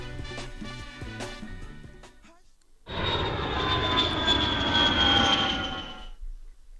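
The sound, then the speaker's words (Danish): A loud, steady Concorde jet airplane roar with a high engine whine as it lands, lasting about three seconds after a short stretch of other sound and a brief pause. “Og det var vist lyden af et øh, fly fra Frankfurt til Kingston, gætter jeg på. Concorden der landede.”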